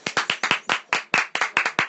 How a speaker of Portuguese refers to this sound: Aplausos.